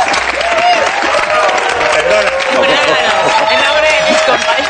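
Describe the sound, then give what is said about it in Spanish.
An audience applauds Francis Lorenzo steadily for the whole stretch, a dense, even wash of many hands clapping at once, loud throughout, with murmuring crowd voices mixed into the noise. “bueno, lo primero que voy a pedir es un aplauso para Francis Lorenzo, que ha estado genial.”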